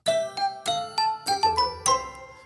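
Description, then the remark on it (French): A bright chime jingle of about eight quick bell-like notes rising in a short melodic run, each ringing briefly before the next, clear with no voices. “encore une fois, euh, c'est juste histoire de recaler un jingle parce que c'est le j'ai payé ce jingle très très cher en ligne.”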